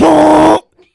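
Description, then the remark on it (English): A single loud, buzzy honk made by a human voice imitating the horn of a Fiat 500, held steady for about half a second and then cut off into silence. “That's the horn of a Fiat 500.”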